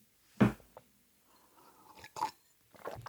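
Someone sips water: a sharp wet slurp at the start, then quieter gulping and swallowing noises, a brief smack and a final soft sip, with short quiet gaps and no talking.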